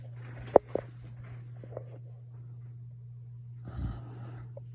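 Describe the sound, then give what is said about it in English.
A single rough, breathy snore rises and fades over a steady low electrical hum, preceded by a few faint clicks and knocks. No one speaks. “All that can be heard from my supposed sister, which I didn't know at the time, was the loud snoring of the would be emperor of the universe.”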